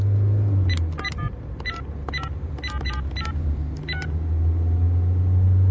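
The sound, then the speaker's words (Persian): A phone number is being dialed for a call asking whether someone can record the start of a race: about ten quick touch-tone beeps in an uneven rhythm over a steady low engine rumble, as if inside a car. “اما به علت تماس تلفنی کومپو سخن یان قطع می شود و پس از تلفن کومپو پالا باید به فیلیپ زنگ بزند و بپرسد که آیا او می تواند شروع این مسابقه رانی را ضبط کند”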